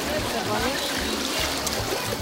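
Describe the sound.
Steady rushing of a river flowing through caves of volcanic rock at Gole de Alcántara, north of Messina in Sicily, with an echoing, enclosed quality, while faint voices murmur beneath the constant wash of water.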